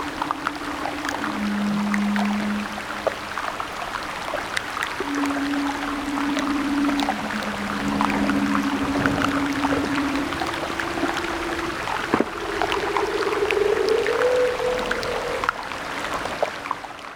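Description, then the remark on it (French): Underwater leopard seal calls: a series of long, low, steady tonal moans that shift in pitch step by step, sounding alone over a crackly, busy underwater background. “des léopards de mer ou hein phoques léopards.”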